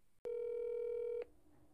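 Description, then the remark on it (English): A phone call tone as someone places a call to a friend: a single steady electronic beep lasting about a second, starting with a click and cutting off abruptly, fairly loud, with quiet background noise after. “I did not tell the podcast people this, but I'm calling Gracie right now”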